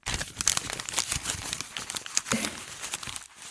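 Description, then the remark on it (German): Script pages being crumpled and crinkled by hand, a continuous dense crackling with sharp bright rustles, steady in loudness for a few seconds and heard alone. “Das sind die Drehbuchseiten.”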